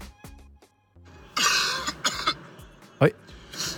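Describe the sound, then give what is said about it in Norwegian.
A man gives several harsh coughs and throat-clearing grunts in short irregular bursts, with a longer raspy cough near the start and a sharp one later, over a faint tonal background. “Han står i det til tross for hosting og kremting.”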